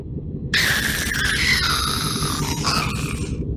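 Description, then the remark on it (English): A voice imitates a Minecraft ghast's eerie whine: a loud, high, wavering squeal held for about three seconds over a steady low rumble. “Can you make the sound they make?”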